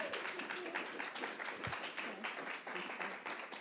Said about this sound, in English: Hey, can we have a Round of applause for this lovely lady. Wasn't that great?